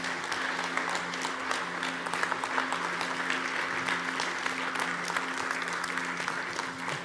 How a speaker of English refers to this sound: And we applaud you today. Come on, church, let's do that.